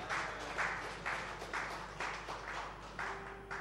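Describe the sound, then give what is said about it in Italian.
A church audience applauds the Lord with dense, continuous clapping that swells in a steady rhythm about twice a second, moderately loud throughout, with no talking over it. “Soltanto, se volete applaudire il Signore.”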